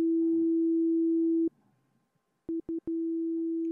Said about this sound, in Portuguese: Agora vamos ouvir uma frequência de 250 Hz, 300, 350, que é um médio grave já indo para o médio, que é o, o, muito comum da voz. A voz humana trabalha bastante nessa região.